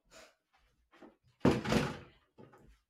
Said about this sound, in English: Okay, so I know we'll shut the door.